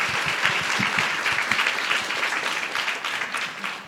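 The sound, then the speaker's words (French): An audience breaks into steady applause, a dense, continuous patter of many hands clapping at once, loud and sustained for the whole stretch without easing off. “On peut aussi applaudir du coup.”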